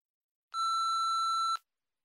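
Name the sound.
answering machine beep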